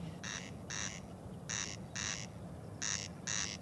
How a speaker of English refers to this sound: So it's a peculiar thing that that's what's happening with the corncrake's call. There's a very slight delay, isn't there? When a second you can hear an echo, like you say.